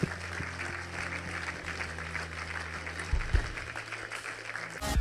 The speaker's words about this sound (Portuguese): Igreja, podemos dar uma salva de palmas a todas as pessoas que tomaram esta decisão.